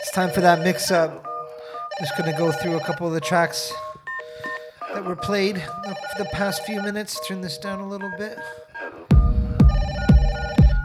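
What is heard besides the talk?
telephone ringing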